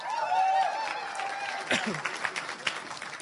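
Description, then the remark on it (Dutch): A burst of audience applause as a play is introduced at the Berea Theater before it begins, dense steady clapping that holds fairly loud for the first half and then thins into scattered claps and a few voices. “Applaus en dan gaan we beginnen”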